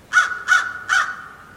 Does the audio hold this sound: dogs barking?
no